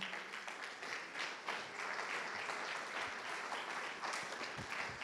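A crowd of people claps their hands together one morning in sustained, dense applause, a steady wash of many overlapping claps lasting the whole stretch with no clear beat and no one speaking.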